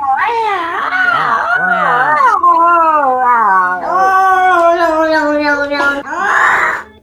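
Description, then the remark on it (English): A human voice imitates two alley cats meowing and yowling: long, loud, wavering cries that slide up and down in pitch, continuing for several seconds with a brief break near the end. “Uh, two alley cats.”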